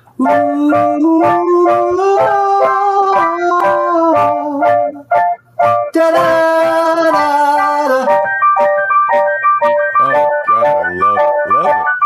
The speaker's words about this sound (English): Um, I don't know how that even sounds. This shitty little SK one through there, but SK one is a uh, legendary instrument.